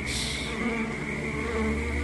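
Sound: flies buzzing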